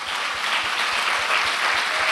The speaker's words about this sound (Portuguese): E eu gostaria que você também viesse comigo de uma forma muito calorosa, dar uma salva de palmas ao nosso Senhor Jesus Cristo.